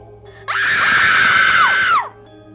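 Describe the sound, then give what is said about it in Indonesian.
Two people performing in a dance show scream together in one loud, sustained, high-pitched burst lasting about a second and a half. The scream starts abruptly and ends with a falling pitch. “tiba-tiba terdengar teriakan dari dua orang temanku yang sedang tampil.”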